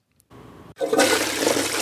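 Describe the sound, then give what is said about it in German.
A toilet flushes: a short click and hiss, a brief pause, then a loud rushing surge of water that continues steadily to the end. No one speaks. “das war die Klospülung.”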